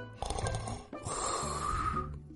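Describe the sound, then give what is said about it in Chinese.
A voice imitates two snores of a little pig dozing on an empty basket, each a rough, rattling breath; the second is longer and carries a nasal whistling tone. Fairly loud, with no speech. “小猪觉得很困，他夜里睡得太少了，他伏在空筐上，打了两声呼噜。”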